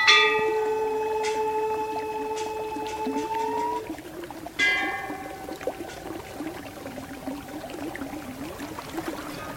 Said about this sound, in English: This stream comes from a glacier on the east side of the mountain. From here, the water runs down the canyon into Lake Mansarovar, then south across the Tibetan Plateau as the Sutlej River, down through the Himalayas, across the Punjab